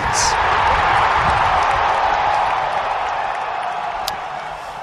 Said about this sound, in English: I felt like a long applause there, whatever that was.